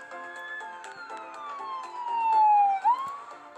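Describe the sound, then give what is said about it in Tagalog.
An ambulance siren wails, its steady tone gliding slowly downward and then swinging back up, loud and continuous with no one talking. “tunog ng isang ambulansya.”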